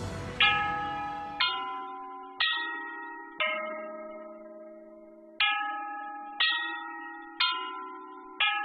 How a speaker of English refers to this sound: What you just heard is a sound recording of the Bianzhong of Marquis Yi, a captivating ensemble of 65 bells preserved in the Hubei Provincial Museum.